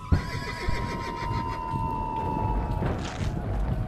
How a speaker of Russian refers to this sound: Один раз лошадь встала на дыбы и получила пулю в голову, которая предназначалась вам.